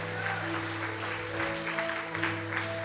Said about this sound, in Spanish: Si alguien lo cree, denle un aplauso bien fuerte al Señor, apláudale a Él. Más fuerte ese aplauso, más fuerte.